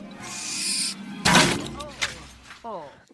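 An owl hoots amid a short burst of produced sound effects, with a loud sweeping crash in the middle and a final descending hoot, clear.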